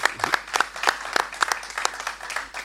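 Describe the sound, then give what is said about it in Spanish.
Applause from an audience welcoming a guest on a Sunday evening program, dense overlapping hand claps with sharp bright transients, steady and moderately loud throughout, with no voices standing out. “Fuerte el aplauso para Mario, qué bueno, Mario, gracias.”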